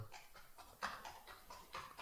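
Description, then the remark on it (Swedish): Soft, steady clip-clop of a horse's hooves at a walking pace as a rider heads out on horseback. The sound is fairly faint, with no one talking. “nu kommer Maja på en häst”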